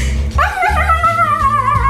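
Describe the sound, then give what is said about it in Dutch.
A dog vocalizes loudly in one continuous, drawn-out tonal burst lasting under two seconds, with a low rumbling background beneath it and no talking. “Hond? Hond, is dat, je, is dat je definitieve antwoord? Ja. Dat is correct.”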